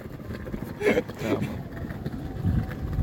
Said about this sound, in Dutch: Is een beetje luid hier zo. Ja, soms wel, man. We hebben geen het begint wel te waaien, man. We hebben geen studio, dus we zitten gewoon Nee, we zitten in de natuur voor inspiratie.